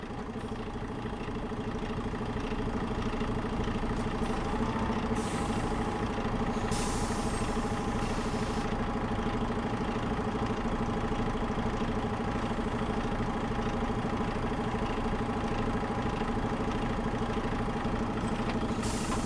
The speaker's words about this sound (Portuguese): Espero o ônibus, que chega pontualmente às quarenta e cinco.